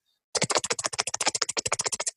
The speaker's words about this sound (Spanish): como de teclado de computador.